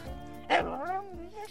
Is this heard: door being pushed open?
no